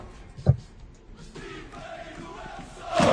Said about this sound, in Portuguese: tem um canto do, do, que exalta essa questão de ser tripeiro, no, que a torcida do Porto é, canta.